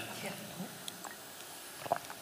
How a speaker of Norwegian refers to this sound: Jeg må ta én slurp til. Er det greit?